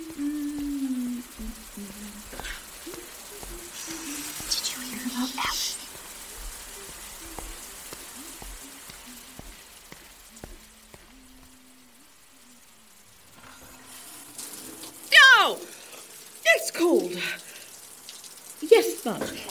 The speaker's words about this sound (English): We are in the club shower.